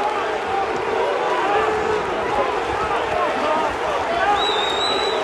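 A football crowd in a stadium boos players coming over to the fans, a loud, steady roar of many overlapping jeering voices with no pauses, sustained for the whole stretch, with a couple of higher whistle-like tones near the end.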